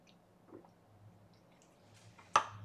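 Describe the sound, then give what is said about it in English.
Someone quietly sips water, with faint wet mouth sounds over a low steady hum, then a single sharp click near the end. No one speaks. “Um, and then from here, I post an example of the program working, but let me take a sip of water first.”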